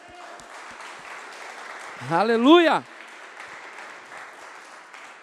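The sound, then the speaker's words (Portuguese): An audience claps for the Lord in a dense, sustained wash of applause, while a single voice shouts out loudly for a moment midway through. “Você pode aplaudir o Senhor por causa disso?”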